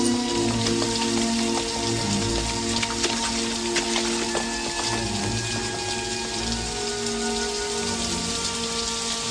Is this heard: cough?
no